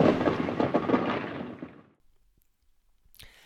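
A loud rumbling thunder-crack sound effect rolls out broadly for about two seconds, then fades into near silence before a brief faint noise at the end.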